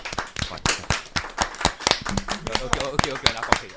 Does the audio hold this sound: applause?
yes